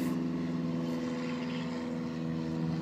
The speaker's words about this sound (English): well there's a plane going going by so I don't know